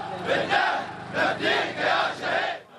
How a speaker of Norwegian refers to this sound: Hundrevis av frammøtte roper slagord.